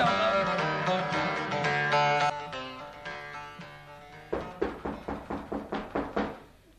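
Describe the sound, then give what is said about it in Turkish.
A sustained musical passage fades into a burst of loud knocking on a door, about eight firm raps in a steady, insistent rhythm, by someone demanding that the door be opened. “Kız aç kapıyı!”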